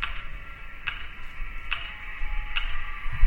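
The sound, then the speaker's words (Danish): A metronome ticks steadily about once every 0.85 seconds, each click sharp and slightly boxy, sent from a radio tower out of large loudspeakers set up on street corners across a city, over a low background rumble with no voices. “Det er faktisk lyden af en metronom, sådan en som musikere bruger til at holde tempoet med. Du hører lyden i dag, som du har gjort hver dag i uvis, i månedvis, fordi den strømmer ud af store højtaler, som er sat op på gadehjørnene, over hele byen.”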